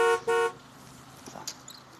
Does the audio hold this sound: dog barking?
no